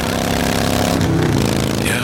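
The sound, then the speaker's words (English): A loud motorcycle engine roars steadily for two seconds, its throaty rumble shifting pitch slightly midway as if revving, with no pauses or other sounds breaking through. “And this is what that same commercial sounds like on your motorcycle.”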